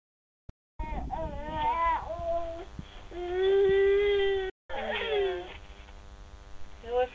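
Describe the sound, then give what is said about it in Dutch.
The speaker's daughter, one year and three months old, cries and wails in long, wavering bursts through a baby monitor, heard tinny and band-limited, with a brief dropout midway before the fussing resumes. “Ondertussen hoor je mijn dochter door de babyfoon.”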